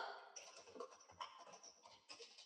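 Quiet, rapid clicking of keys on a computer keyboard, a steady run of light taps with brief bursts of faster typing, with no voices.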